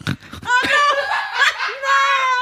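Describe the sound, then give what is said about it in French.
A woman's voice imitates her own snoring, which woke her from sleep: a few rough snorting bursts followed by drawn-out, nasal, pig-like voiced grunts, fairly loud and with no other talking. “À un moment, je me suis auto réveillée parce que j'ai ronflé et du coup, j'ai eu honte.”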